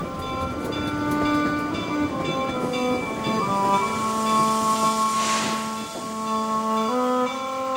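A passenger train rumbles along on rails, with long sustained metallic tones shifting in pitch over a steady clatter and a brief hissing burst of steam midway, no voices.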